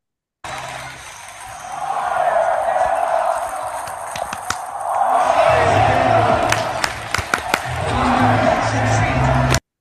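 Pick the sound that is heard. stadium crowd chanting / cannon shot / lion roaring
stadium crowd chanting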